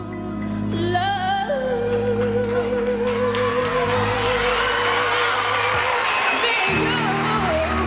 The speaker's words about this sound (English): but it's in the way she doesn't back down, how she takes command of her voice and the song, and by the end, has the audience cheering.